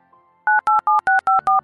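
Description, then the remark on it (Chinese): A rapid series of six telephone keypad dialing tones on an old, secondhand mobile phone as an uncle's number is dialed, each a short two-pitched beep separated by brief gaps, loud and steady with no voices. “在母亲期盼的目光中，张一峰颤抖着拨通了堂叔的电话。”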